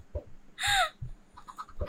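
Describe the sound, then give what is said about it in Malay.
A chicken that has got loose lets out one loud, sharp squawk, followed by a few softer, quicker clucks, with dull low thumps scattered around the calls. “Eh ya, ya, Ada ada ayam terlepas Ada ayam terlepas”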